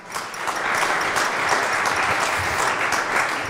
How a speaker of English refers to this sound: But yes, I think that deserves another round of applause.